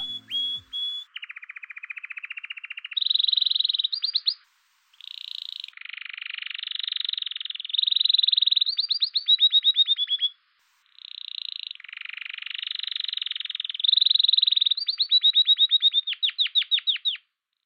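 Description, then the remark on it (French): A male canary sings loudly in long, continuous phrases of rapid trills, buzzy rolls and bright whistled notes, pausing briefly twice before resuming its intense, varied song. “Et pour démarrer cette chronique, écoutons un instant le chant intense et mélodieux d'un canari mâle.”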